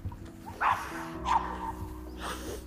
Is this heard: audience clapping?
no